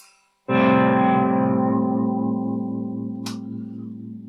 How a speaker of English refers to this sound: But we're going to look at some of the classic sort of stuff and classic ways of using the trem. One way of using your trem is for a gentle warble.